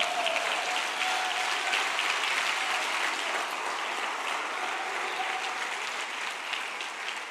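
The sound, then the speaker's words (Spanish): An audience bursts into sustained, loud applause for the Lord, a dense wash of clapping hands that holds steady for several seconds with a faint tonal hum running underneath. “Si lo crees, dale un aplauso fuerte al Señor.”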